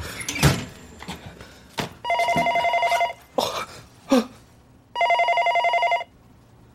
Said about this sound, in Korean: 그때였다. 그를 꾸짖으려는 듯 전화벨이 사납게 울린 것은 다리가 후들거렸다. 방금 전까지 그가 그곳에서 무슨 짓을 하고 있었다는 걸 알기라도 하듯 전화벨은 오래도록 울렸다.